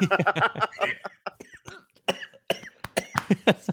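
A person coughs repeatedly in a long, ragged fit, with bursts of harsh, throaty coughs and short gasps between them, fairly loud.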